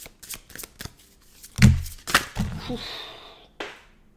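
Tarot cards being shuffled: a few light taps and flicks, then loud riffling bursts that settle into a steady whirring shuffle, ending with one sharp snap of the deck. No voices.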